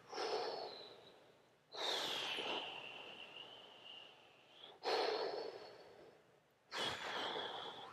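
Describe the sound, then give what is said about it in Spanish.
A voice imitates ocean waves with the mouth, making breathy, hissing exhalations: four surging swells that rise suddenly and slowly fade, with no speech. “Estoy haciendo un ruido con mi boca que tiene toda la intención de eh, invocar ese sonido.”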